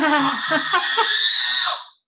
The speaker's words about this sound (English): hey, stop screaming.